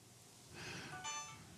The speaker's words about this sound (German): Oh, mein Wecker. Telefon.